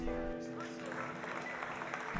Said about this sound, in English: Before you can be sure, she completes her piece, she stands, she gives a short bow, and she walks off the stage to thunderous applause.